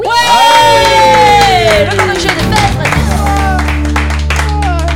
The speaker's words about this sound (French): c'est pas mal, on peut applaudir